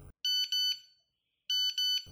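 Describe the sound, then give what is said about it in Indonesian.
A bright electronic text message alert plays twice, each a quick trill of several high, clean beeps with a short pause between the two bursts, standing out loudly over silence. “SMS masuk.”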